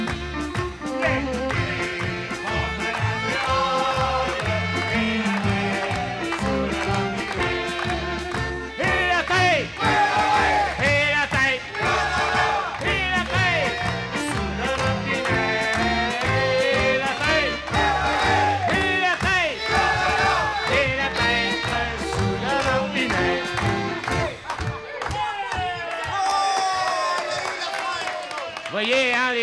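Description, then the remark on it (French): A large audience of men only, no women, sings loudly together in unison, a dense, sustained wall of voices filling the whole stretch, with a lively rhythmic pulse and occasional whoops. “Écoutez bien les beaux organes, vous allez entendre quelque chose de bien. Seulement que les hommes, pas de femmes.”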